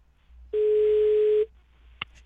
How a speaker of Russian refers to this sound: Вот давайте послушаем, а, на какой угу. стадии у нас сейчас э, идет это общение. Угу. Ну вот, пожалуйста, гудки.